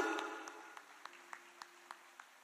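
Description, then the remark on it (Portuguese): Soft audience applause for volunteers who came forward, thinning out into a steady rhythmic clapping of about eight evenly spaced claps, fading toward the end with no talking. “Ó, mais uma salva de palmas.”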